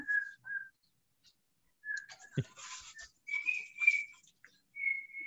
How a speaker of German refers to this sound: der hat mich mindestens ein Jahr gefragt, Mama, wie geht es mit dem Pfeifen?